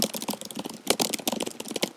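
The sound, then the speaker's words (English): Rapid, continuous typing on a computer keyboard, showing how fast a colleague types, with dense clicking keystrokes and a few louder key hits, steady for the whole stretch, with no voices. “I'm going to type on this keyboard. This is basically what it's like working beside him.”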